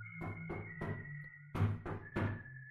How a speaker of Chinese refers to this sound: 第一天晚上，大约一点多的时候，活动板房的门被敲响了。先是一个工人醒了，问：“谁呀？”门外没有发声，还是敲门。